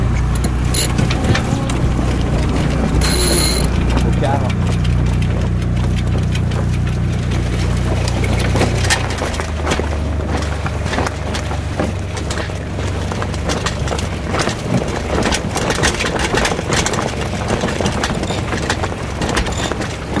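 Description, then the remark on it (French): A sailboat's inboard engine idles at low revs near Cap Nègre in a light wind, a steady, deep droning hum for about nine seconds, then is stopped as the sails are set, leaving rushing wind and water noise with scattered clicks and knocks. “On va mettre les voiles, arrêter le moteur.”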